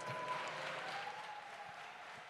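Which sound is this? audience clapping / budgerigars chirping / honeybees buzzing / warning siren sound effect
audience clapping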